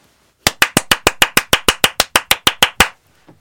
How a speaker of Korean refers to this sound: 아, 조금 늦었지만 제가 또 오랜만에 축하 박수 전해드리겠습니다.